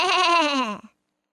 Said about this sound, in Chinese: 在农场一个长着苔藓的杨栏那里，这只不幸的鸭子还在咩咩的叫， 咩。咩！